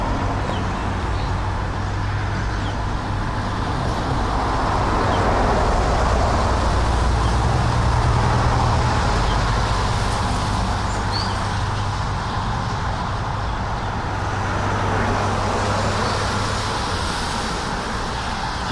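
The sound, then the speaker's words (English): A car drives past on a road, its steady rumble swelling through the middle and easing off, over continuous traffic noise with faint background chirps. “The car is not a miracle of nature.”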